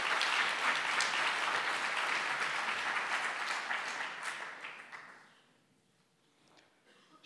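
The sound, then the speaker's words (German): Sustained crowd applause, dense and steady for several seconds, then thinning out and fading to near silence with a few scattered claps at the end. “Applaus”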